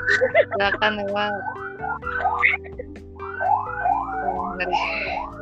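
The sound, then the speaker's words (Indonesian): An ambulance siren wails in repeated rising and falling sweeps, fairly loud and steady, mixed with other tonal sounds and a hum underneath. “ada ambulan ya guys innalillahi ya.”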